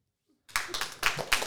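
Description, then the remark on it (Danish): After a brief silence, an audience in a hall breaks into dense, steady clapping to show they find Halloween fun. The clapping holds at a moderate level, with a few louder bursts rising out of the patter. “alle dem i salen her, der synes, at Halloween er en ret sjov ting, klap lige hænderne.”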